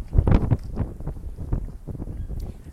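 Strong wind from a cyclone buffets the microphone in heavy, low rumbling gusts, loudest in the first half second, then continues as a rough, uneven roar throughout.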